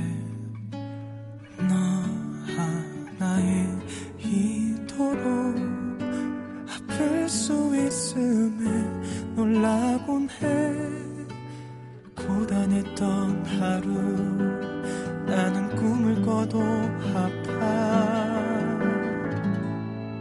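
A pop ballad plays at steady volume, a male vocal carrying the melody over full instrumental backing, with a brief drop in intensity midway before the song swells again.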